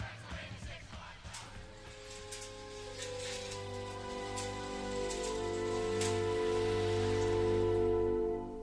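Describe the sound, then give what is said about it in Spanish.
A new pop cover of the classic Disney melody that plays over the Cinderella castle logo at the start of Disney films, with sustained layered tones and soft percussive touches over a steady low bass, swelling gradually louder and fuller throughout. “ha sido la encargada de renovarla y suena así de bien”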